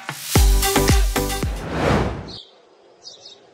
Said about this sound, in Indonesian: Kalau dengar kicauan burung kayak gini, biasanya menghasilkan suasana yang meriah dan bahagia ya.